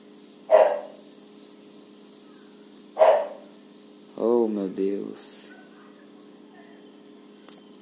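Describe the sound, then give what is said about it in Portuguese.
A pet dog barks twice, a couple of seconds apart, each bark short and sharp at moderate loudness, followed by a brief stretch of voice against a faint steady hum. “E agora meu cachorro tá latindo.”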